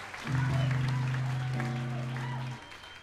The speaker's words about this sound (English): All right. Thanks a lot. You guys are good at clapping.